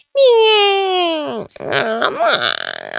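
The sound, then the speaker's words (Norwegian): A voice mimics a baby's wail through a baby monitor at home in Skien, Norway, as the baby wakes: one long, high, strained cry that slowly sags in pitch, then breaks into choppy, sobbing sputters. It is loud and alone. “Eh, og så var det jo selvfølgelig sånn at idet coachen sier 'ja, velkommen til teamet', så hører jeg babycallen”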